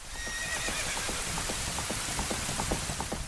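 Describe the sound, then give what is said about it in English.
A white horse's hooves clatter in a quick, steady rhythm as it gallops past as a castle drawbridge opens in a video game, with a whinny rising above the pounding and a dense hiss like rain filling the background. “The drawbridge opens. A white horse rushes past.”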